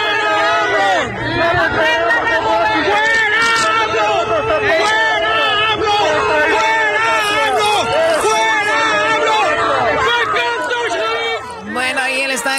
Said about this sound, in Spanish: Bueno, ahí hay gente gritando cuando fue a ver a Benito Juárez, la estatua o el monumento.